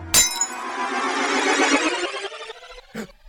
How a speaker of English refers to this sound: Visualize yourself stealing the amulet off his neck and smashing it on the ground.